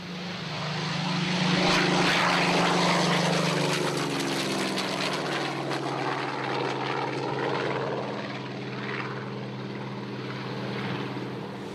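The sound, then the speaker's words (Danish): An American propeller fighter plane drones steadily and loudly for the whole stretch as it circles low over the town of Villalba on 14 July 1943, its engine tone sliding gently up and down, with no voices. “juli 1943 på invasionens fjerde dag dukkede et amerikansk jægerfly op over Villalba og begyndte at kredse lavt hen over byen.”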